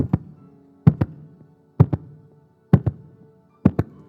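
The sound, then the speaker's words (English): A steady run of paired thumps, lub-dub style, repeating about once a second, mimicking a heartbeat by knocking on something. Distinct, with no talking. “He'd say, Missions is the heartbeat of God.”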